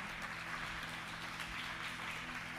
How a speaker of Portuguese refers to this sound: Gente, vamos aplaudir o pessoal que está lá atrás na mídia, por favor. Me ajuda a honrar o pessoal. Aplauda forte.